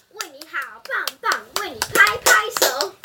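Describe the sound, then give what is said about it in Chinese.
Live, real (not canned) applause from a small group for children who performed on stage: scattered, uneven handclaps mixed with excited children's voices chattering and calling out over them, fairly loud throughout. “因为我们今天没有用这个混音器啊，所以呢，我们的罐罐头掌声是真，不是罐头掌声，是真的现实的这个这个掌声啊。”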